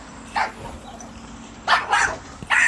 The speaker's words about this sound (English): Neighbor's dog.